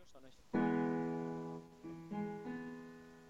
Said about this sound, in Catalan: Les més generals són l'harmonia major i l'harmonia menor. Um, un acord major sona així.